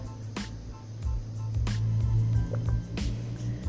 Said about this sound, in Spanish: Déjame tomar un trago de agua porque se me está sacando la garganta.